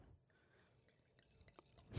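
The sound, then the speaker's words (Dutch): Chilled Sauvignon white wine pours softly into a glass on a Thursday afternoon, heard as faint trickling and small dripping splashes that grow louder toward the end, with no one speaking. “Nou, dan gaan we die vast even inschenken.”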